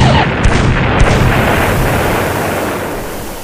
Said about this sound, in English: The Skyway Boulevard is ablaze with still more explosions occurring. I can see the metal men moving amongst the buildings